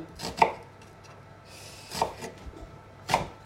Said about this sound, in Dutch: dus ik snij eerst in de lengte, maar dat je niet tot op het einde komt. Dus dat ze gewoon blijven staan. En dan dwars over, dat je kleine stukjes krijgt. Geen echte voorkeur over hoe dik of hoe dun, gewoon snijden.